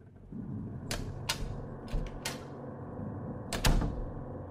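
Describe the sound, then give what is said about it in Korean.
A door being opened as an older brother leaves, with a series of sharp clicks and knocks from the handle and latch, a final louder clunk near the end, over a low steady rumble. “말을 마친 형은 문을 열고 그대로 어디론가 가버렸다.”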